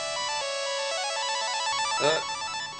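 A phone ringtone plays a bright, tuneful electronic melody of quick repeating notes at steady volume, with a brief swelling flourish near the end and no voices, announcing an incoming call from a friend in Kathmandu.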